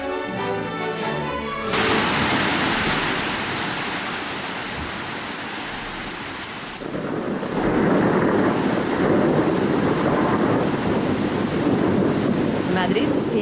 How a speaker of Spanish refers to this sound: En medio de una gran tormenta, un carruaje se mueve a gran velocidad por las calles de la capital, hasta que se detiene en una mansión en las afueras, solitaria y tenebrosa.